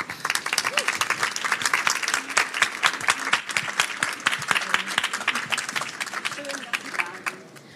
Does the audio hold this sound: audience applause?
yes